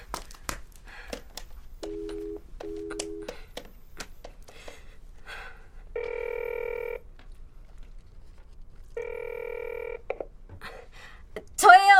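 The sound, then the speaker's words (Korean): Quick keypad presses and short dial beeps on a borrowed telephone at a clinic, then two long, steady ringing tones a few seconds apart, followed by a brief voice at the very end. “저, 전화 한 번만 쓰게 해주시면 확인 바로 가능해요.”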